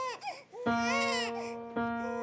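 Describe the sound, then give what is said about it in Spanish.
An infant girl, seen through a large window, cries loudly in sustained, wavering wails: one short whimpering cry, then a long strained howl, with another starting at the end. “se acerca a un ventanal y ahí está su pequeña llorando.”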